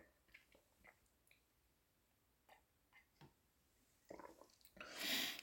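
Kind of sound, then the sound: food or drink, sipping coffee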